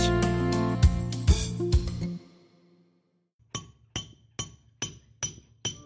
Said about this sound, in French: On n'entend que moi à l'abbaye de la Sauve Majeure. Toute la journée, la nef résonne des bruits sourds de mon maillet, avec lequel je viens frapper le burin qui vient sculpter la pierre tendre et lisse.